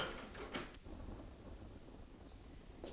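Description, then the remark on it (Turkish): Spring rain starts to fall, pouring down steadily as a dense, continuous hiss, with a low rumbling undertone like thunder and a few brief louder bursts. No one speaks. “Yağmur başlamış.”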